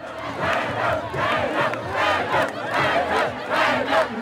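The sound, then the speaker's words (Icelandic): A large crowd of Conservative Party supporters loudly chants their leader's name, "Pape" (Søren Pape Poulsen), over and over in a steady, rhythmic beat, roughly once a second, with cheering and shouting filling the gaps between chants. “Flokksleitóðarnir heilsuðu bara upp á sitt fólk og, og hérna heyrum við til dæmis uh, stuðningsmenn Íhaldsflokksins hylla sinn leitóða og kalluð, kallað þarna Pape Pape, hann heitir sem sagt Sören Pape Pólsen Pape Pape”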